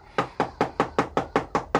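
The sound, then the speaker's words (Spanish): A rapid, steady series of eight firm knocks on a door, evenly spaced, with no voices. “Al fin, esta es la puerta. Llamen y los atenderán. Eso mismo voy a hacer.”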